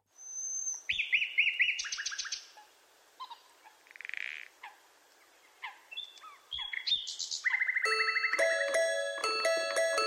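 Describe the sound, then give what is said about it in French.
Several birds chirp and sing nonstop, with quick high trills, rapid repeated notes and bright whistled calls overlapping one another, growing denser and louder toward the end. “Dans la chanson qui suit, on entend aussi des oiseaux chanter.”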